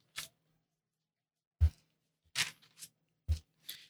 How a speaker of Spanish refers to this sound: En el Nuevo Testamento. Y suena las hojas. Ven a las hojitas.